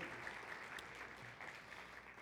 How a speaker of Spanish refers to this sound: Qué bueno es Dios, ¿verdad? Podemos darle un aplauso porque es tan fiel, es tan leal